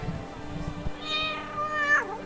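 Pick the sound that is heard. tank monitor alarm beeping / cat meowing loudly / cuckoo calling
cat meowing loudly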